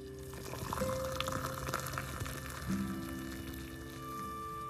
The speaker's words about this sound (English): Let me get my coffee, the magic, and my cute little red teapot that I love. I love boiling fresh water and pouring it into my nice cup of Nescafe.